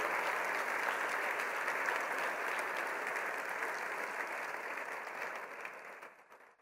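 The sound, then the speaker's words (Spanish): An audience at a church service applauds to thank God, a steady, dense wash of clapping that holds for several seconds, then tapers off and fades near the end. No one speaks over it. “A ver, vamos a darle un aplauso a nuestro Padre por sus añadiduras.”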